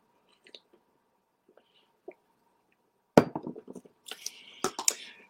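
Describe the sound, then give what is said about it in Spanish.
A few faint clicks, then a speaker drinking a little water: a sudden clatter followed by wet gulping and swallowing sounds, with short sharp clinks at the end. No one speaks. “discúlpenme voy a tomar un poquito de agua.”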